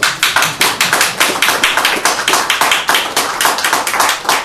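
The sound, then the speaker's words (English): A crowd applauds steadily, with many sharp hand claps overlapping into a dense, even patter that holds at a strong level throughout, with no voices. “The, the judge did not clap.”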